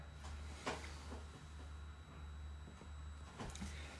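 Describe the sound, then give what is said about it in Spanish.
A cat named Daruk, outside on the other side of a door, rattling and bumping at it wanting to come in: a few brief, scattered knocks and scrapes over a steady low background hum with no voices. “Preguntan por acá, ¿quién hizo ruido por donde estás tú? Mi gato.”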